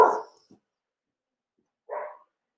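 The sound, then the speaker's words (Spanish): Dogs bark at a person passing by: a sharp bark, a tiny yip, then a second bark about two seconds later, with silence in between and no talking. “Bueno, y va a pasar una persona alerta de perros.”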